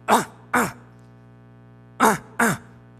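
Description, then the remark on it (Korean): A voice imitates a throat-clearing cough: two quick gruff "ahem" bursts, a pause of over a second, then two more in the same paired rhythm, fairly loud. It imitates an annoyed mother-in-law coughing because her daughter-in-law is still asleep and has not made breakfast. “9시가 됐는데도 이거 안 일어나 가지고 밥을 안 차리니까 이제 기분이 나빠 가지고 기침 소리를 내는 거죠.”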